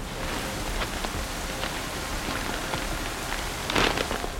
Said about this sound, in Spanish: La noche y su oscuridad eran impenetrables y la lluvia había formado pequeños arroyos con la fuerza suficiente para derribar hombres.